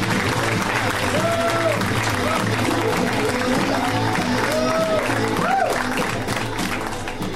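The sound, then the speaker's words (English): Sustained applause from an audience for comedian Randy Liedtke, a dense, steady wash of clapping at even loudness throughout, with a few cheers and whoops rising above it. “Guys, let's hear it right now for Randy Liedtke. Come on, give it up for Randy.”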